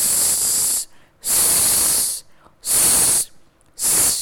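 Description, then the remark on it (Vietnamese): Four sustained voiceless /s/ hisses, made with the tongue tip against the upper front teeth while air is pushed through the gaps between them, each close to a second long, separated by short silent gaps; the bright, steady sibilant is loud and clear with no talking around it. “Sau đó chúng ta sẽ đẩy một luồng khí đi qua kẽ răng của cửa trên và mình tạo ra một cái âm gọi là âm”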